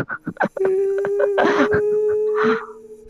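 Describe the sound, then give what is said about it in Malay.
A voice imitates a long, eerie wail like a person crying, not like a dog, one sustained high tone held for about two seconds after a few short breathy sounds, with a little laughter-like noise mixed in. “Tapi bila tiba-tiba tu dia dengar macam bunyi macam orang dia menangis tak menangis dia bunyi macam panjang sikit dia bukan bunyi macam anjing tau dia hmm.”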